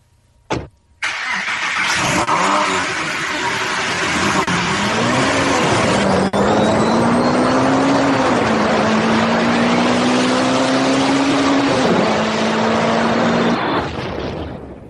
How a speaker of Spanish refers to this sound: Arranca, el coche que no, que no da esto, ¿eh?